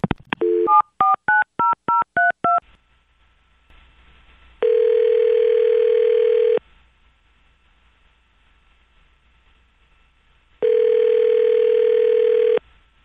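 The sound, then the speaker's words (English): A rapid string of touch-tone keypad beeps as a phone call is placed to a woman, followed by two long, steady telephone ring tones with a quiet pause between them, over a faint line hum. No one speaks. “All right, well, let's do this. Let's call her up and see what we can find out.”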